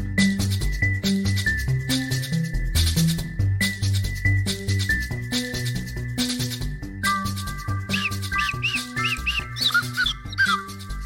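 A small toy whistle is blown over a busy, rhythmic musical backing, holding a shrill steady tone before breaking into quick warbling chirps toward the end.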